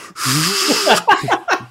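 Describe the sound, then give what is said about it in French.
A voice imitates a dishwasher being switched on, sounding like a turbine: a steady breathy whoosh with a wavering hum sliding up and down for under a second, then a few short, choppy vocal bursts. “c'est une turbine, votre lave-vaisselle.”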